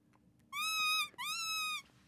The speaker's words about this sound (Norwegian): En dame i moden alder går på på Frogner og holder en lapp foran en skjerm, før jeg hører et lite pip som jeg nesten hadde glemt at eksisterte.